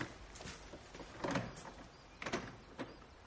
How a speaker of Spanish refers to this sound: Abre la puerta y entran.